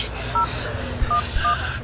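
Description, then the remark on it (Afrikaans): Three short telephone keypad tones beep in sequence as someone dials to call the police, each a brief two-pitched electronic chirp, with a slightly uneven gap between them over a low, rumbling background hum. “Bel die polisie.”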